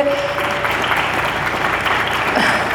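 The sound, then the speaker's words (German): Steady, dense audience applause fills the whole stretch for young people standing on stage after a speech, a continuous crackle of many hands clapping at even loudness with no voices standing out. “Ich hätte gern, dass diese tollen jungen Menschen weit länger hier oben stehen bleiben, um Licht und Applaus entgegenzunehmen.”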